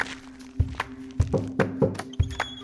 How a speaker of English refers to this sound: When she knocked on the door, all she had was that handwritten note from her grandfather, handing off the entire mezcal factory to her.